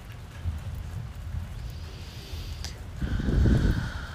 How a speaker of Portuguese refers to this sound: Você ouve os trovões? Eu espero que sim. Você ouve a chuva? Te convido a prestar atenção.